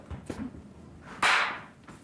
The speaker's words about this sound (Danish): Og næste gang jeg klapper, så tager det cirka 0 lige på øh, 1 sekund, det cirka tager, før jeg holder op. Nu skal vi ned på 0,5 sekunder. Næste gang jeg klapper, bang, så står jeg der.